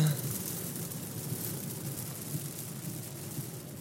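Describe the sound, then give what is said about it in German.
Heavy rain pours down in the Westerwald, Rheinland-Pfalz, Germany, in a dense, continuous hiss with a low rumbling undertone, steady throughout with no pauses and no one talking. “Und jetzt, wo es so doll regnet, will die bestimmt nicht mehr raus.”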